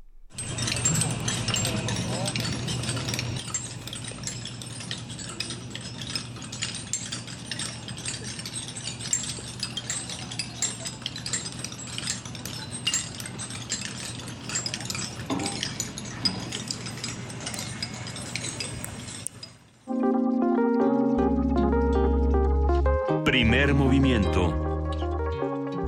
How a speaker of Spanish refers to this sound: Nos vamos a la pausa con una postal sonora. Estos son los trabajos de intervención en el espejo de agua de la Biblioteca Central.